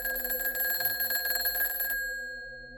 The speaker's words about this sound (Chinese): 就在我洗完澡倒头休息没多久，大约是凌晨两点左右吧。我被一阵电话的铃声吵醒。